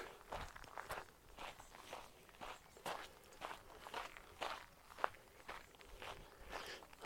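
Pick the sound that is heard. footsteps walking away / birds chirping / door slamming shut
footsteps walking away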